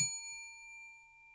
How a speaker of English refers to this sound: To help me control my rowdy panel of recidivists and reprobates, I will employ what I have called the inappropriate bell. An example of this would be.